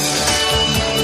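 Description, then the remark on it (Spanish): A brief burst of a song from a CD playing loudly and steadily, its backing music sitting muddy and poorly balanced underneath, giving a dense, cluttered mix. “la música está súper mal por debajo y además es que suena como pelagrera”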